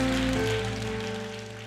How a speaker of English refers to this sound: Won't you give God a hand clap of praise? Hallelujah.